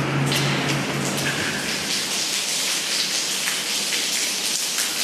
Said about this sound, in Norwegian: Det er en foss i Torsom.